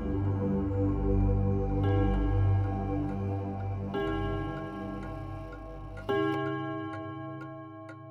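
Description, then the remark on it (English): A clock chimes with slow, resonant strikes about every two seconds, each ringing out and lingering over a low sustained hum, with faint ticking underneath. No voices. “A ghastly figure with a mean glare has also been seen walking the halls, and the, at this point, tame footsteps, crying, and clock chimes, where no clock is present, have been heard.”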